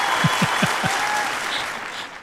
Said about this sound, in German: Ich glaube, das ist auch kurz ein Applaus wert.